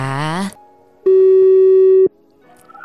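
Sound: telephone call ringing tone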